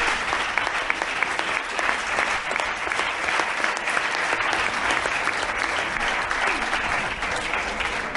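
Sustained applause from an audience for the invited guests of a talk, a dense wash of many hands clapping steadily at an even loudness for the whole stretch, with no voices rising above it.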